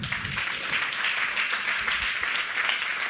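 Steady audience applause, many hands clapping in a dense, continuous wash of sound that holds at an even, fairly loud level for a few seconds, with no one speaking.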